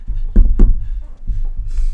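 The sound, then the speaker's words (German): Knocking on wood: two quick, solid knocks, followed by a few softer, duller taps against a low background rumble. “Klopfen auf Holz.”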